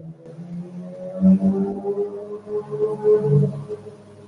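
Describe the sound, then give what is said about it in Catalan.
A Ferrari sports car engine revs with a deep, harmonic growl that swells and dips several times in quick succession, steady, with no voices over it. “diu el Ferrari. Ah, tant, jo com sona.”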